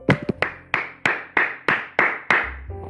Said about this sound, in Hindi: तालियां एक बार एक बार उन महाशय के लिए तालियां